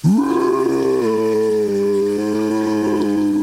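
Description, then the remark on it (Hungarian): A giant that has stepped onto an upheld sword bellows in pain: one long, loud, low roar that swells in quickly, dips slightly after a second, then holds a steady, strained tone for over three seconds with no talking. “Belelépett a nagy kamasz, és elbődült.”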